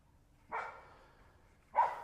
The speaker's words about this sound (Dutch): Kijk, nou gaat er een ander alarm af en dat is een hond.